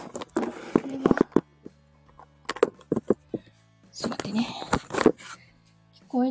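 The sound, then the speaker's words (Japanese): Cardboard rustling and crinkling as a cardboard box is handled and folded shut, with sharp scrapes and taps in uneven bursts, and a voice speaking softly in between. “一つ今、段ボールを、段ボールを閉じようかなね、なかなか難しいよね。”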